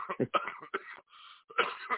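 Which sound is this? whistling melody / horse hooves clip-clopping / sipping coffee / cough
cough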